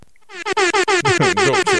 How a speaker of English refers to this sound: was air, uh, air horns. Was, you couldn't hear it. Sorry. Oh, he was I put some air, air horns, horns in there. You couldn't hear it.